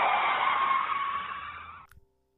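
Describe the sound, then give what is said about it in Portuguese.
A voice imitates screeching brakes with a loud, sustained, high-pitched squeal lasting almost two seconds, fading slightly before cutting off with a soft click. “Só que na hora que eu fui mandar, o dedinho assim foi fazendo um freio assim, ó.”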